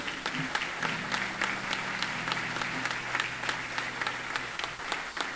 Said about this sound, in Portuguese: Dê uma salva de palmas ao nosso Deus.